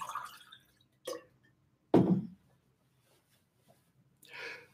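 A speaker pauses while answering a question to drink water: a few short, separate sips and a louder gulp, spaced by quiet pauses, then a soft exhaled breath. No one speaks.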